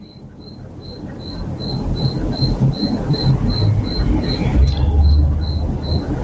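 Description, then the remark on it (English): Frogs calling outdoors at night, a steady series of high, evenly spaced chirps repeating a few times per second over a low, rumbling background hum. “Uh, the frogs are. So I, I enjoyed the sound.”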